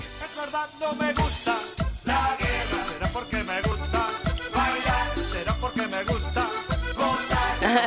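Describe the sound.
An upbeat cumbia song plays loud, with a steady pulsing bass beat, bright instrumentation and a sung Spanish vocal line running throughout.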